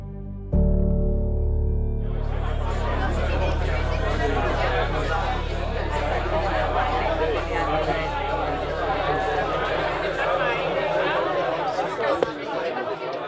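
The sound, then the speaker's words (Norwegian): A steady hubbub of crowd chatter at the launch of the book 'Prosessen mot Viggo Kristiansen', many overlapping voices blending into a dense babble, with a low hum underneath that begins just before the voices swell in. “Nå skal det være boklansering.”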